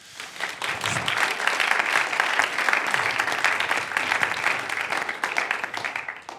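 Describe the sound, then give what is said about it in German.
Sustained audience applause, a dense crackle of many hands clapping at steady volume for several seconds before tapering slightly at the end. “Wir geben Ihnen doch einen Applaus.”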